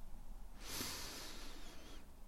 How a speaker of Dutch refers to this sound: Je kunt mij volgen. Adem rustig in door je neus